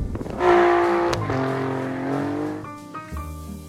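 The 2.9-litre turbocharged 90-degree V6 engine of an Alfa Romeo Giulia Quadrifoglio sports sedan, derived from Ferrari's 3.9-litre turbo V8, revs hard, its tone climbing, dipping briefly at a quick gear change, then holding a loud, steady growl before easing off into a lower, rumbling idle. No one speaks.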